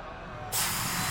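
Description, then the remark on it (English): A steady, loud hissing spray of toxic gas, spat out by spores, bursts on abruptly after a half-second of low background rumble and keeps going without a break, continuous. “Then they started spraying that toxin.”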